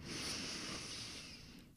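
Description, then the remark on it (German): A long, steady breath drawn in through the nose during a guided deep breathing exercise, airy and hissing and fairly quiet, lasting nearly two seconds with no talking. “Atme über die Nase ein”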